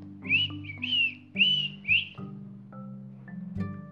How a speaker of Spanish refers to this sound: Silbando bajito